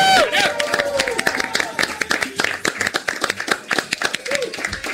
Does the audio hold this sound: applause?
yes